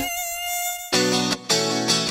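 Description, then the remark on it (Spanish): A mosquito's thin, high-pitched whine holds steady for about a second, then gives way to harsher, louder buzzing that surges in three close bursts, with no voices. “No dejes que el zancudo te enferme de malaria.”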